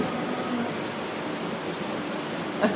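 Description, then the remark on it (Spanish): A steady, dense hiss of heavy rain pours continuously throughout, loud, with one brief louder knock near the end and no voices. “Hay que la fuerte con la lluvia.”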